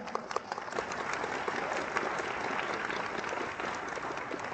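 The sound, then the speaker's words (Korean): Steady applause from an audience at a one-day seminar in Taipei, given for first-time attendees, many hands clapping in a dense, continuous wash with scattered sharper claps, sustained at an even level throughout without talking. “给他们个热烈的掌声。”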